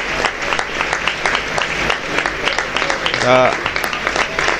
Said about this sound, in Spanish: Y en estos momentos el Estadio Gal, el público del Estadio Gal aplaude la salida de Miku.